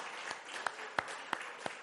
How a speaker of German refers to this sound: Lass uns nochmal einen Applaus geben, einen Finger, einen Daumen ins Fenster.